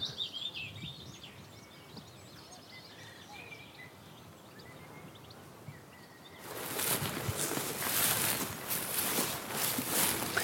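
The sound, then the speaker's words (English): A willow warbler sings soft, high, descending phrases over quiet outdoor ambience, then loud rustling noise swamps the birdsong for the last few seconds. “And here it's very much the, the willow warbler like this one.”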